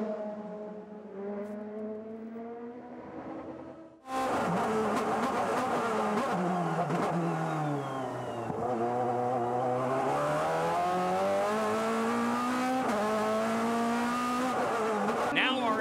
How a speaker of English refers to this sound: and now you've got four cars. They're going four wide, headed down that straightaway. And they got a little bit slowed down in that whole situation.